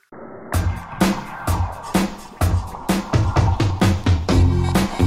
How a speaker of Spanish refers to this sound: Y esta canción que suena salió el 5 de febrero del año 2011. Cuando apareció todos dijimos, ¿de dónde salieron estos pibes?